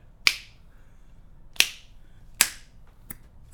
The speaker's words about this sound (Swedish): Fingerknäppning. Eh, vilka av oss kan knäppa med fingrarna?